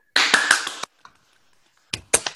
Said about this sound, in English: So I'm going to unmute you all so we can all clap loudly.